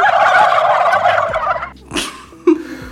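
A turkey gobbles loudly in a long, rapid, warbling burst, followed by a couple of shorter squawking calls near the end.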